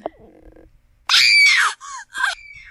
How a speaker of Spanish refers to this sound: No tengo efecto de abucheo. Me tengo que conseguir uno. Pero pero tengo un efecto de. de gritos, esperen.